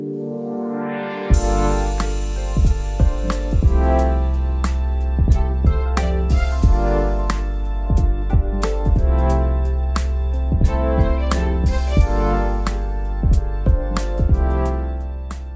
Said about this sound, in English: What you have just heard is the British national anthem, God Save the Queen. The Hong Kong protesters sang the anthem in a protest this weekend in front of UK consulate in Hong Kong.